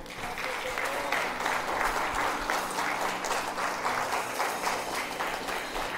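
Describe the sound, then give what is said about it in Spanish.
An audience at a religious service applauds the Lord steadily for several seconds, a dense, sustained wash of many hands clapping at once with no individual voices standing out. “Dele un fuerte aplauso al Señor.”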